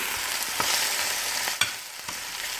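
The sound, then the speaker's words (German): Steady sizzling of mushrooms, frozen parsley and onion frying in margarine in a pan on a stove at full heat, a dense hiss with a few sharp clicks and scrapes of stirring, fairly quiet, with no voices. “Die Pilze kommen in die Pfanne und die gefrorene Petersilie dazu.”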